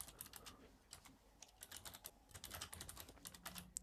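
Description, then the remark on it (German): Rapid typing on a computer keyboard, a dense, uneven patter of crisp key clicks continuing steadily for a few seconds with no voices. “Kannst du mal aufhören zu tippen?”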